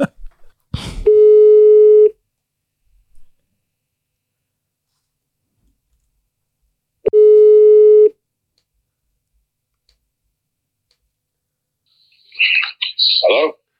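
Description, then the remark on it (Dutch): A phone line's ringback tone sounds twice, each steady buzzing beep lasting about a second and spaced several seconds apart, before a person's voice briefly comes on at the end. “Even laten we die even bellen.”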